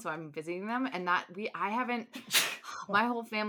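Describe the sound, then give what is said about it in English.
A single sharp sneeze bursts out in the middle of ongoing conversation, briefly cutting through the talking before speech resumes. “Oh, bless you”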